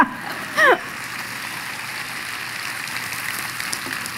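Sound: audience applauding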